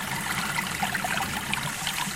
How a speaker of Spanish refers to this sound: Y... zambullida total. Solo se oye el estruendo del agua.